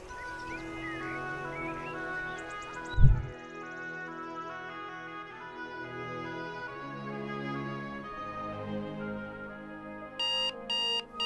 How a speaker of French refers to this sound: Ah putain de réveil, putain, il est matin là, faudrait dormir, putain.